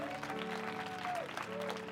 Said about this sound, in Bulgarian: О, знам, че можете да ръкопляскате по-добре от това. Знам, че можете, знам, че можете, знам, че можете. Знам, че можете по-добре. О, хайде, ръкопляскайте, ако вярвате,